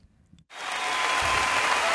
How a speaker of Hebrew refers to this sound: אה, תנו את מחיאות הכפיים שלכם